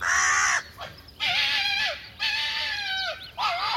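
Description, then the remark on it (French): A pair of carrion crows give loud, harsh alarm caws, three or four rasping calls in a row with short gaps between them, as they try to drive a vixen away from their nest. No voices. “Les corneilles croisent de plus belle pour la repousser.”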